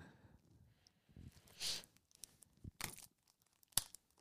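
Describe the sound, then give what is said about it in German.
Plastic shrink wrap being torn and crinkled off a record, in a few sharp, scratchy bursts with soft rustling between them. Fairly quiet, with no voices. “Stell dir mal vor, die Leute wollen die Musik hören, kriegen aber die Folien nicht ab und sagen, ja, ah, nee, gut, dann kann ich sie nicht anhören.”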